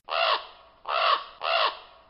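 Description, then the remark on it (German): Three loud, harsh caws in quick succession from a raven kept at the Tower, each a raspy, slightly downward-bending call with a short gap between, heard clearly with no talking. “Die sind auch alle irgendwie gleich groß und die sind auch alle irgendwie gleich laut.”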